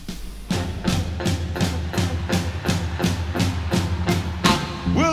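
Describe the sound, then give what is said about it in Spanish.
An upbeat rock song played from a record sounds loud, with a steady driving drum beat hitting about twice a second over a full band and deep bass. “Bueno, de ese disco vamos a escuchar”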